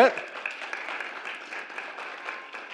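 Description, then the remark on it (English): Audience applause for a woman who has just read a passage aloud: a steady, dense patter of many hands clapping at moderate volume, lasting a few seconds after a brief burst at the start. “Let's give Joyce a round of applause.”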